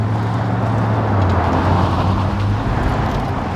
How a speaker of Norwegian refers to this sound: Mens seks landcruisere suser ut av boligkvarteret, blir én bil stående igjen på tomgang.